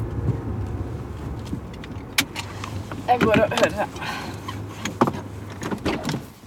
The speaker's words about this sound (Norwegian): Det er i ferd med å bli mørkt når vi stopper bilen for å ta noen bilder av de gjenspikrede, forfalne husene i en liten bydel.